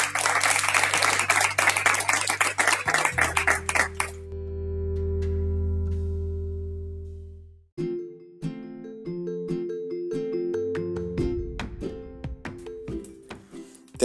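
A burst of audience applause fills the first four seconds over a low musical drone, then gives way to sustained synth tones and an upbeat instrumental jingle with no voices.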